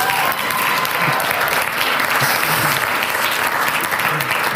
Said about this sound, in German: also der Applaus geht zu 99% an meine Frau, denke ich mal.